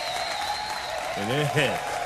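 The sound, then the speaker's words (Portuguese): Steady, spontaneous audience applause, a dense wash of clapping throughout, with a voice briefly speaking over it partway through. “Senhoras e senhores, eu queria agradecer essas palmas espontâneas.”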